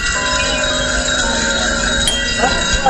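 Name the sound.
bells ringing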